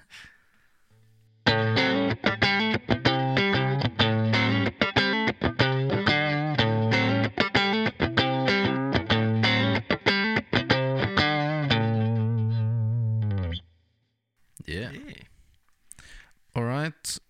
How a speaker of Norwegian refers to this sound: Og så er det gitar B, neck pickup. Skru på lyden, du.